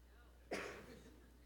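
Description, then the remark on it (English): A single sharp sneeze bursts out, sudden and fairly loud, then trails off quickly into a quiet background hum. “God bless you.”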